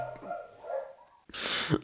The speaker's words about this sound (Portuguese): A sério, eu vou matar estes cães, meu. Eu vou matar estes cães, meu. Eu já tive de parar a gravação para aí 3 ou 4 vezes. Porque o filho da puta do cão não se cala, meu.